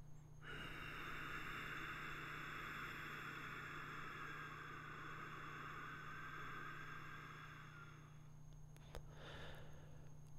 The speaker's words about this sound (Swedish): Men jag kan repetera genom att säga att det handlar ju om att när man lägger i tungan med ett lätt tryck bakom framtänderna och sen lätt, lätt spänning i gummen. Och eh, då får man ett svagt väsande ljud på, ljud på utandningen.